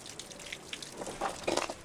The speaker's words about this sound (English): It was the worst glacial outburst flood in Juneau's history. The team moved towards the mouth of the channel, weaving through small streams of water and dripping, house sized blocks of ice that were left behind by the flood.